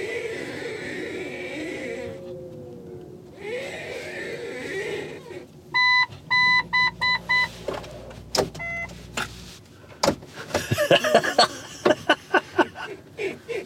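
A car's steering wheel makes two drawn-out whirring, groaning strains as the car is parked in a car dealership's yard, followed by a series of short electronic beeps and a burst of sharp clicks and knocks.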